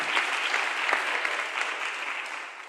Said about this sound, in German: Ihr macht es klasse da hinten. Eigentlich müssen die mal einen Applaus kriegen, stimmt's?